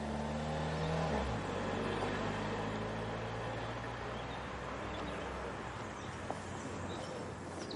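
A car engine rumbles steadily, its low hum dropping in pitch after a second as the vehicle pulls off, with a constant wash of road and motor noise and no voices.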